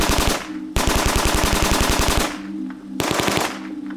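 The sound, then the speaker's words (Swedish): Rapid bursts of automatic fire from a Kalashnikov rifle, shot by a masked man into a parked car from a few meters away; loud, sharp evenly spaced shots in a long stream, a brief pause, then another short burst before the echo fades. “Han är maskerad och bär på en kalasjnikov. Han skjuter hej vilt in i den parkerade bilen från bara några meters avstånd.”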